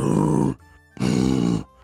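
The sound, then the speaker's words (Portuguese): A voice imitates a cow's moo with two deep, loud, drawn-out grunts, each about half a second long, separated by a brief pause. The tone is very low and rumbling. “Tipo um mugido de, de vaca. Só que muito, muito, muito grosso.”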